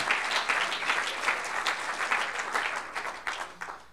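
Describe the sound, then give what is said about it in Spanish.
A crowd at a night worship service applauds the Lord Jesus Christ steadily throughout, a dense wash of many hands clapping at once with small surges in loudness, fading slightly toward the end. “No, a ver, denle un buen aplauso al Señor Jesucristo esta noche.”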